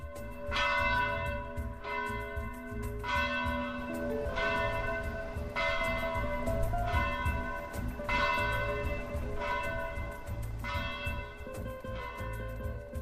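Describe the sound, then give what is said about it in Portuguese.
Church bells ring out loudly in a steady, repeating peal, strikes arriving roughly every second with rich lingering overtones that blend into a continuous wash of tolling, with no voices. “Parte da nossa visita foi acompanhada do toque dos sinos da igreja.”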